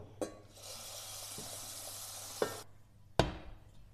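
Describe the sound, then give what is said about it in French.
Water runs steadily from a tap into a large saucepan being filled to boil broccoli, for about two seconds, framed by a few sharp metallic clunks as the pot is handled, with no one talking. “Donc vous remplissez votre casserole avec de l'eau”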